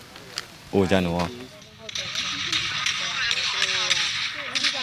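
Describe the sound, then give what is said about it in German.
Scattered sharp gunshot cracks, tinny as if recorded in a phone video, with a brief shouting voice early on and a steady hiss of background noise between the shots. The shots are fired as soldiers in camouflage uniforms crawl toward a base of Myanmar's military junta. “Soldaten in Tarnuniformen robben auf dem Boden auf einen Stützpunkt der Militärjunta zu, also des staatlichen Militärs von Myanmar. Es fallen Schüsse.”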